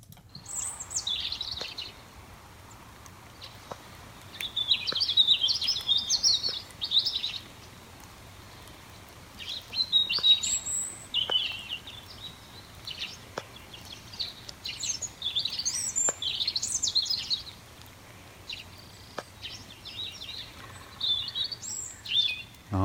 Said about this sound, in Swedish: vem är det som kvittrar där i bakgrunden? Ja, det här är en rödhake som sitter och sjunger. Rödhake? Sådana här gnistrande höga toner. Mm. Och, och, den är ju typisk för, för vårkvällarna, speciellt i granskogar där den trivs allra bäst.